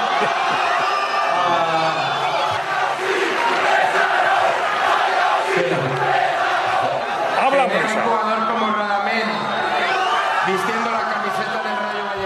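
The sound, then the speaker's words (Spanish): A large crowd of Rayo Vallecano fans jeers and boos at club president Martín Presa during a player's presentation with the club, in a sustained, loud roar, with overlapping shouts and whistles rising and falling throughout. “Esos abucheos que se escuchan de fondo van dirigidos a Martín Presa, el presidente del Rayo Vallecano, quien por diversas razones ha despertado el rechazo de todos los hinchas del equipo al que se sumó en 2011.”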